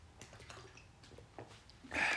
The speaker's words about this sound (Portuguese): Aquela pausazita para a água.